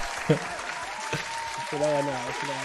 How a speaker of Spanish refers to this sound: Te ganaste un aplauso en algún momento. Ahí está.